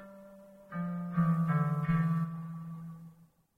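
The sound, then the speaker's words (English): A synthesizer playing its first analog preset holds a warm, low sustained tone with a few overlapping note changes and bright harmonics, playing alone before fading out after a few seconds. “So there's so many different types on here, and they all sound amazing. Analog.”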